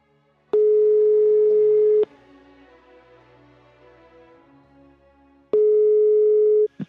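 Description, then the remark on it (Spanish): A steady electronic phone ringback tone from a call placed on a mobile phone sounds twice, each a loud single pitch lasting about a second and a half, separated by a long pause filled with faint background noise. “Lo estoy llamando y voy a fusionar la llamada, ¿vale?”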